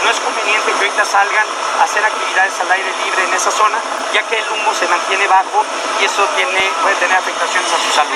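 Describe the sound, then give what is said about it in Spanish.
Five helicopters drone overhead in a steady, loud mechanical roar that never lets up, with a person speaking continuously over the top of the engine noise. “y ahorita había una disculpa por el audio, había cinco helicópteros sobrevolando, entonces por eso se escucha mucho ruido.”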